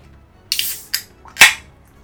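A chilled can of unpasteurized, naturally hazy stout, out of the fridge 10 to 15 minutes, cracked open: a few sharp metallic clicks and snaps, ending in a louder pop with a brief hiss of escaping fizz. No voices accompany the sounds.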